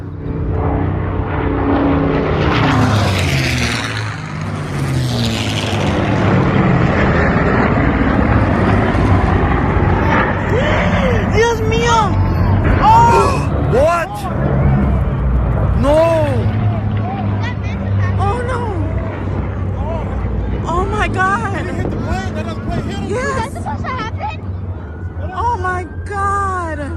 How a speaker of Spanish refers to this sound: Son los sonidos del accidente que captaban numerosos asistentes a este festival aéreo con motivo del Día de los Veteranos, que se celebraba en el aeropuerto ejecutivo de Dallas, al suroeste de la ciudad tejana